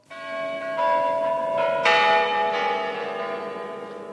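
The clock bell of the Saviour Tower (Spasskaya Tower) in the Kremlin, Russia, strikes several times in uneven succession on a Saturday before the presidential election, each bright, clanging hit overlapping the long, shimmering ring of the previous ones, with no voices present.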